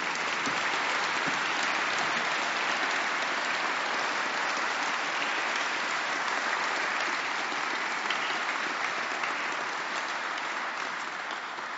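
Sustained audience applause for the winners of a Vårt Land prize, a dense steady wash of many hands clapping at an even loudness for about twelve seconds, with no voices standing out.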